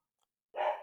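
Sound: dogs barking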